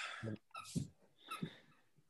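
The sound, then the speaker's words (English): A dog chews on a little Santa squeaky rubber toy, producing a few irregular high-pitched squeaks mixed with soft gnawing thumps, fairly quiet, with no talking. “It's my dog. He's got a little Santa toy that he chew tore toy.”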